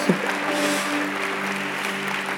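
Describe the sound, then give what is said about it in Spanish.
Steady audience applause, a dense wash of many hands clapping at an even loudness for a couple of seconds, with a faint sustained low tone humming underneath. No one speaks. “No, no aplauda por eso.”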